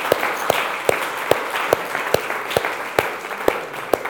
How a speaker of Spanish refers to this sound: Ese es el Espíritu Santo. Dele un aplauso, por favor, porque es digno de aplaudirle.